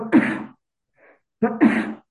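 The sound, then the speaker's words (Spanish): Two loud sneezes about a second and a half apart, each a sudden breathy burst, with a faint short intake of breath between them and no talking. “Ay, una disculpa. Salud.”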